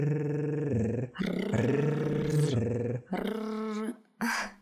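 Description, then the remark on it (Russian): A person growls like a dog as a vocal exercise, in several sustained, rumbling bursts separated by short breaths, fairly loud, with a rough throaty vibration and no words. “На этом рычащем звуке мы с тобой поддержим наш с тобой мотив.”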